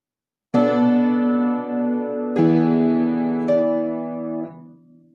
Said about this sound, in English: Did you ever think that pirates would ever hear such a chord as this associated with them? It's, it's frankly disgrace. Hear it again. Pirates. that make you think of pirates? Doesn't make me think of pirates.